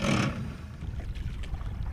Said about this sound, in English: Here she is in the early fall, revving up her 18 foot fishing boat and motoring into the Great Slave Lake.